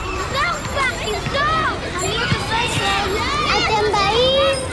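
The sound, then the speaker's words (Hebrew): A bustle of children playing outdoors during the summer vacation, many overlapping high-pitched voices shouting, calling and squealing continuously, with rising and falling cries and no clear words. “כשהחופש הגדול מגיע, מגיעים איתו מכל עבר קולות ה...”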